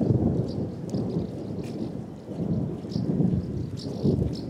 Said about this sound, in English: As you can hear, thunder rumbles overhead.